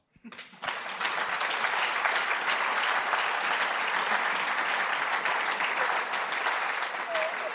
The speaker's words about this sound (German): Frau Doktorin Plasnik, das ist Ihr Applaus.